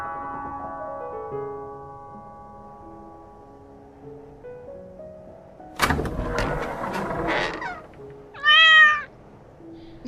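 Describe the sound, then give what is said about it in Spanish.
A cat gives one short, clear meow near the end, fairly loud, following a stretch of clattering and rustling noises over a low background hum. No one speaks. “¿El gato es tuyo?”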